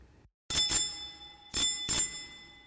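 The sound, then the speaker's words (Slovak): A bright bell at a door rings twice in quick succession, pauses, then rings twice more, each strike clear with a shimmering ring that lingers. No voices accompany it. “Len čo sa vlk uložil do postele, ozval sa zvonec”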